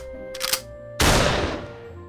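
A short burst of noise is followed by a loud, sharp shotgun blast fired through a ninth-floor window. A crackling, shattering tail trails off over about a second, with no voices present.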